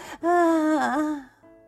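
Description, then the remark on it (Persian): A voice imitates George from Peppa Pig panting heavily and tiredly from chasing the tennis ball: one loud, drawn-out voiced huff with a wavering pitch, then a short, softer breath trailing off. “هر دو با هم داد میکشن کجایی توپ جمع کن جورج نفس نفس میزنه اوف اوف”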